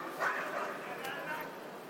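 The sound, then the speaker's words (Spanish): Dogs barking, a few short yaps and woofs over steady background noise, with a person talking. “¿Oyes los perros? Esta es la vida real.”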